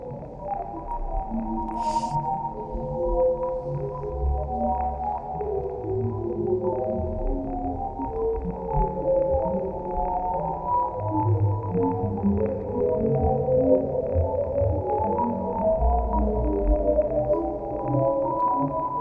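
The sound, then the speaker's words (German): A sonification of an astronomical nebula image: soft, layered low tones glide and overlap in a continuous ethereal drone, evoking whale song, with a faint crackle above and no voices throughout. “Und das Coole ist, das ging in den sozialen Medien jetzt auch sehr viel rum, ist, dass diese Bilder teilweise auch vertont wurden und die hören sich richtig schön an.”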